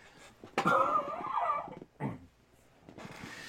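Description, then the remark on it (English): Two muffled coughs from a person who has moved a little way off the microphone during a live stream: a longer, raspy first cough with a voiced rasping tail, then a shorter single cough, with quiet background noise between. “I'm going to cough again, and this is a live stream, so I'm going to move away from the screen so I don't cough.”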